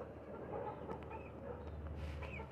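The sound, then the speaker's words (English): A Polish chicken clucks faintly in short, scattered sounds against a steady low background rumble, with no talking. “So uh, that Polish chicken is just so interested hmm.”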